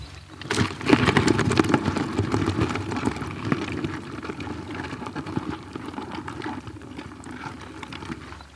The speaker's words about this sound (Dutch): Die hij dus uitselecteerde en dan eh, vervolgens in een emmer uh, stopte. De kreeften klinken zo.